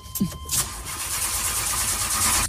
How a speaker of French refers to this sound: Je suis devant la fusée qui va décoller. Vous entendez les moteurs derrière moi.